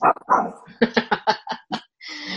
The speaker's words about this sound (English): her dog, is making himself known.